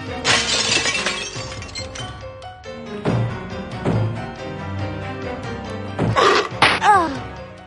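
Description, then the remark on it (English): A loud glass window in a game's attic room shatters with a sharp crash as a creature smashes through it, followed by scattered tinkling shards and a few thuds, then another burst of breaking glass near the end. “And if you hang around too long, this thing smashes through the window and attacks you.”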